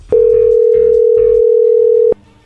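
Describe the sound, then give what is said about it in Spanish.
A steady telephone dial tone holds for about two seconds as a phone call is being placed, loud and continuous at a single pitch, with faint low voices murmuring underneath before it cuts off abruptly. “Claro, bueno, a ver, ahí se está marcando, no haga ruido, a ver qué sucede ahí”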